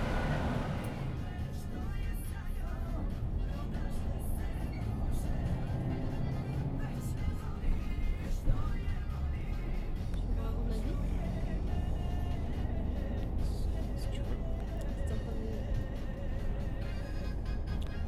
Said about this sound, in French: Parce que là, on est dans le bus entre. Oh, j'ai déjà oublié la ville. Mais on va, en direction Sapareva euh, Bagna.